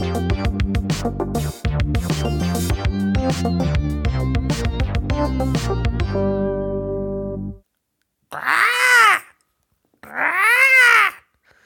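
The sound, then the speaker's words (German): A short, loud electronic jingle of bright repeating notes and punchy beats runs for several seconds and stops, followed after a brief pause by two warbling, rising-and-falling synthetic swoops. “Und äh, jetzt gibt es nochmal den Jingle”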